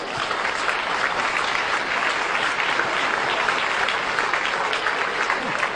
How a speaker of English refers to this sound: And I thank you very much for listening to our panel. Big round of applause.